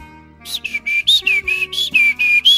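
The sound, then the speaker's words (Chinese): A person whistles an imitation of a bird chirping: about nine short, high, bright chirps in a quick, steady rhythm, fairly loud, with no talking. “啾啾啾啾啾啾，小鸟跟着妈妈在散步。”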